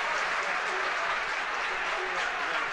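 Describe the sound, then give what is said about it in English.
A dense, steady roar of the crowd at Nolan Park cheering and applauding after a point scored over the bar, with about seven minutes of normal time remaining; loud and sustained throughout with a broad hiss of massed voices and clapping. “Now listen to the crowd.”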